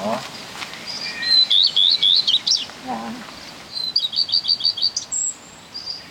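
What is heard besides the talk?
bird chirping song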